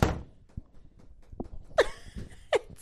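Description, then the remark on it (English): A few soft, uneven footsteps thud as a person walks in, followed by two sharper knocking bangs as a door is shut, with no talking. “that was me walking in the door closing.”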